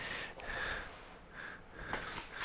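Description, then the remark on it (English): Airy inhaling drawn in several long pulls as someone takes a large dab hit of mechanically separated mimosa rosin, a hissing, slightly wheezy intake of breath with a short sharper gasp near the end. No talking. “He's having to dab a mimosa”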